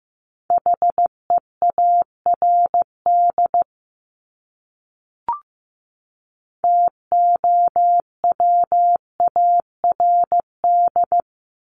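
Steady Morse code tones at fifteen words per minute beep in short and long bursts at a moderate pace, a clean single-pitched tone keying on and off with a brief pause and a faint click midway.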